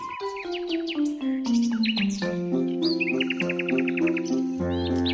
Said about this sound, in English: The nightingale sang, and the inchworm measured away.